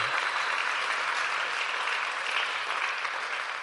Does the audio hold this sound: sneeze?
no